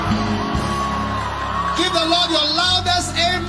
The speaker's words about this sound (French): Criez à l'éternel des cris de Alléluia.